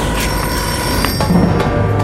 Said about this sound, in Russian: Мастер, э, время сделать сбивку на смену декораций и продолжим в той же интонации.